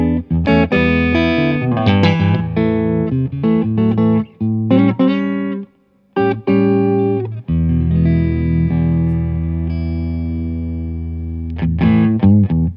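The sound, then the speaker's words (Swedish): Clean electric guitar plays strummed chords and picked notes, briefly pausing midway before a long chord rings out and fades, then a few quick strums close it. No one speaks. “Eh, här är vårt rena ljud i alla fall.”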